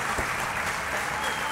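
Steady audience applause, a dense wash of many hands clapping at an even, sustained loudness throughout the short moment, with no voices standing out.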